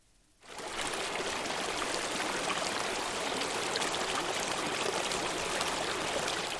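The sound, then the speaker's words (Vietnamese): Steady rushing of a flowing stream crossed by a single-log footbridge begins after a brief quiet moment, a dense, continuous babble of water holding an even, fairly loud level with no voices throughout. “Trên đường đến trường có một con suối và phải đi qua một cây cầu độc mộc.”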